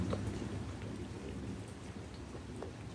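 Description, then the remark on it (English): Steady rain falls continuously, a dense wash of patter with scattered droplet ticks over a low rumble, evenly loud throughout with no voices. “Let the rain take the sadness or grief.”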